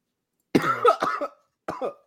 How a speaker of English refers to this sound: This nigga coughs.